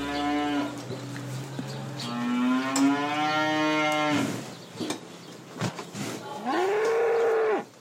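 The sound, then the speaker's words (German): Several cows at a monastery with an organic farm in Gnadental near Limburg moo in turn, long drawn-out bellowing calls with rising and falling pitch, loud, with brief gaps of farmyard ambience between them. “Glückliche Kühe im Kloster, das ist heute unser Thema.”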